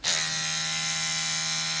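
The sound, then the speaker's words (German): An electric toothbrush buzzes steadily, a continuous motorized hum that starts abruptly and holds an even pitch for the full couple of seconds, with no voices. “Zahnbürste. Richtig, woher weißt du das?”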